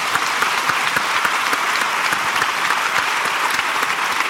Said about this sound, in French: eh bien, on peut l'applaudir.